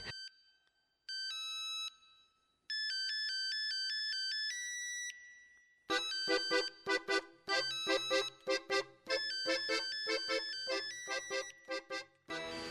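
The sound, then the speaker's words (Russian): The mobile phone ringtone melody from the film Boomer (Бумер), on the hero's phone, plays clearly with no voices: thin, high electronic tones in a short stepping tune, then a fuller, louder polyphonic section with rhythmic pulsing notes. “И это при том, что даже кадры со звучащим рингтоном а, режиссер вообще-то не задумывал.”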